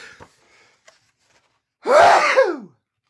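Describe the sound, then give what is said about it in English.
One loud sneeze bursts out after a second or so of near silence with faint breathy clicks, a sharp explosive blast sliding into a short voiced trailing tone. “but that that one is like, oh god, I'm gonna sneeze again.”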